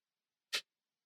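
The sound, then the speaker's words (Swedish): A single crisp, sharp click as a refillable magnetic lipstick case snaps shut, brief, surrounded by silence. “Det är ju det man vill åt, ett magnetstängning.”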